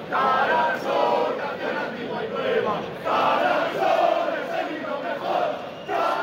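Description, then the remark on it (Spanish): A large crowd of ultras at a protest at the junction with Marqués de Urquijo in Spain chants and sings the hymn of the División Azul together in unison, a loud, continuous massed chorus with rising and falling phrases, filling the scene for several seconds. “en la confluencia con Marqués de Urquijo, los ultras eh, que iban decididos ya pues, a empezar los disturbios. Eh, aparecen cantando el himno de la División Azul, una versión que popularizó un grupo de, de música ultra hace unos años aquí en España.”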